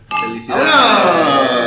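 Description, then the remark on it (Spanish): Two bright glass clinks close together, the second followed by a long shimmering ring that slowly fades, like glasses touched in a toast. “Salud. Salud. Felicidades.”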